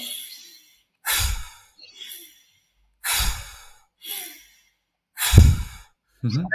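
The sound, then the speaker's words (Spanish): Three strong, forceful breath cycles repeat at a steady rhythm, each a sharp noisy inhale through the nose followed by a heavy exhale through the mouth, loud with brief pauses between them. “Por ejemplo, Andrew Huberman en su podcast habla de ella, sería coger aire potente con la nariz, soltar con la boca.”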